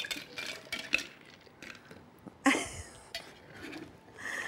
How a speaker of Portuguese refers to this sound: Já não pegava num shaker. Há quanto tempo? Há alguns 40 anos ou mais. Mas mexia-se assim.